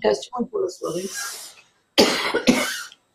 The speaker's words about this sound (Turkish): Galiba e, Boğaz'da e, çok konuştuğundan ya da e, öksürük tuttu arkadaşımızı.